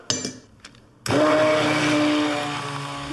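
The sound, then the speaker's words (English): A few light clicks, then a blender suddenly roars to life, churning sauce with a loud, steady motor whine and a hum that sinks slightly as it works. “So now we're going to blend it all.”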